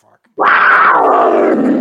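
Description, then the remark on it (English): A person growls like a tiger, a loud, rough, sustained roar that bursts in abruptly after a brief quiet moment and holds steady for over a second. “growl, tiger growl yourself right now and then repeat what you were saying”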